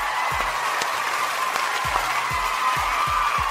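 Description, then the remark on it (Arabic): A steady wash of applause from a crowd, heard on the radio station 99 Al Arabiya, fills the whole moment, dense and continuous, with a few deep rhythmic thumps pulsing underneath. “زقفة حلوة أيوة هيك”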